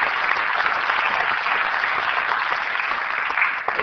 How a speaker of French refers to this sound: Donc merci au théâtre de la colline et vous dire, je crois qu'on peut les applaudir très fort.